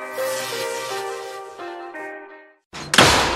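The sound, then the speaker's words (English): A steady, tonal musical passage fades to a brief silence, then a door slams with a sudden loud, heavy bang and a short rattling tail. “You kids, quit slamming my goddamn door!”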